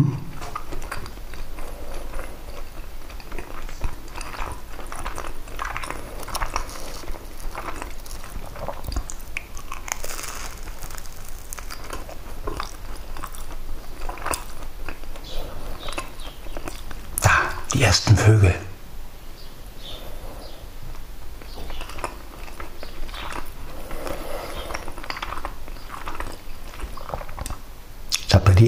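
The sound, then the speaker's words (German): Someone eats a Bockwurst sausage in the morning, with repeated wet biting and chewing sounds in an uneven rhythm throughout, plus a brief louder crunch partway through. “Heute brauche ich kein Frühstück mitnehmen, denn heute gibt es ja Bockwurst.”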